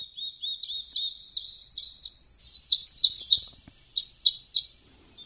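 Red crossbill calls ring out clearly, a run of sharp, repeated chip notes, first in a quick fluttering series, then as distinct evenly spaced kip calls, with no talking.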